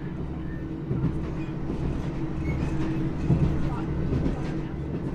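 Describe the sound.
A small local passenger train leaving Boston rumbles along at steady speed, its low, continuous roar and faint rhythmic wheel clatter filling the space, with faint voices underneath.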